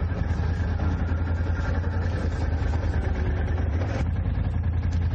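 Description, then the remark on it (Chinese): A Bombardier all-terrain vehicle's engine runs at a steady low rumble while descending a steep slope on engine braking at about three to four km/h, a constant throbbing drone with a gritty mechanical rattle on top and no voices, holding an even loudness throughout. “评测大众庞巴迪全地形车”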